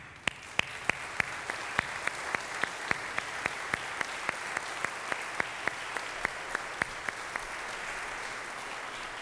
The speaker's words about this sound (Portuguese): Então, mulheres da igreja presbiteriana de Vila Mariana, em especial a SAF, a minha salva de palmas para vocês.